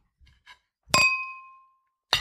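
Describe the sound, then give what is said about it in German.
A bright glass clink rings out and slowly fades, glasses clinking in a toast with sparkling wine, preceded by a couple of faint light taps, with another sharp clink cutting in at the very end; no voices. “Ich habe nur ein Glas in der Hand, aber es klingt nicht so geil.”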